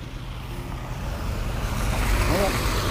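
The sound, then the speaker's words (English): A mail delivery truck drives past, its low engine rumble steadily swelling louder over a few seconds against faint outdoor background noise. “Yep, we're gonna hold up while the mail goes by.”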